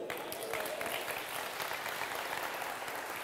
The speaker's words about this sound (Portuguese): Dá um glória a Deus e aplauda o Senhor.